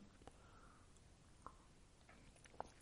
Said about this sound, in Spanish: si me permiten, voy a tomar otro trago de mezcal.